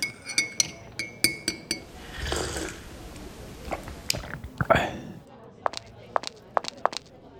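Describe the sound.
Glasses and cups clink repeatedly in a busy café, bright ringing taps in quick clusters at the start and end, with a rush of clatter and faint murmuring voices in between.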